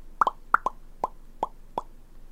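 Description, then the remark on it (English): A series of hollow mouth pops, made as a hint for a Pop Series card, about seven in all: two quick doubled pops, then single pops at a slowing, even pace. Clear, with no talking. “Five pops.”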